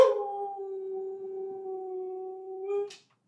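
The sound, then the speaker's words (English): A female husky howls in the morning, on the wolf full moon, in one long, steady, sustained note lasting about three seconds, clear, ending with a brief upward waver before cutting off. “my dog is howling for us this morning.”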